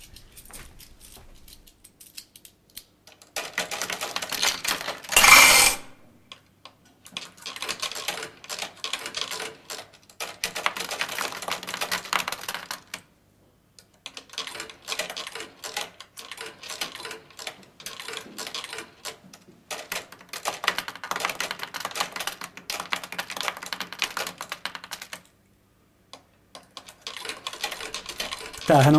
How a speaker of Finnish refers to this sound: Pajatson ääni. He, heitille tuttu ääni, onko? On, on, on. Mä väitän, että 50 penni ei, ei ole markka. Ehkä tää on 50 pennin pajatso. Tää on 77 vuodet.